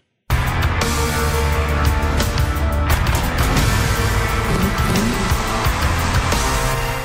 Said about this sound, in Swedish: Och där hörde vi musik och motorljud ur Ready Player One, den nya filmen av Steven Spielberg efter Ernest Kleins roman